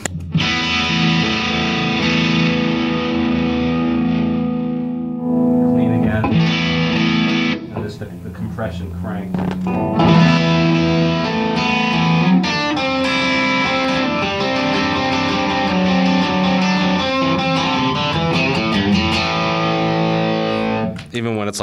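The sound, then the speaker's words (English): An electric guitar played through an effects pedal set to full compression, its loud notes sustaining evenly and thickly, with a couple of short breaks between phrases. “full on compression.”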